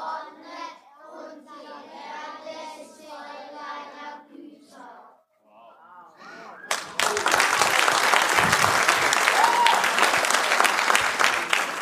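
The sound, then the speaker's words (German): Children's voices chant together in unison, then a burst of enthusiastic applause from a group of kids erupts and continues steadily, loud and dense, until the end. “Das ist euer Applaus, weil ihr den so gut gelernt habt.”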